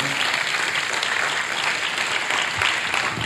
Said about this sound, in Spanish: Porque el único que lo puede hacer es Cristo Jesús. Un aplauso para Él.